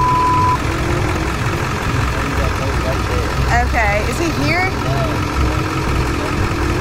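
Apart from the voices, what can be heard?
pickup truck engine idling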